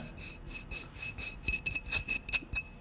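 A fingernail scrapes across a grainy textured bottle label in about ten quick, rhythmic strokes, producing a dry, slightly glassy rasp with no one talking.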